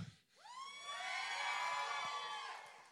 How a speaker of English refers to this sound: You're supposed to say at just the right time, but I'll take the hoot and the hollering.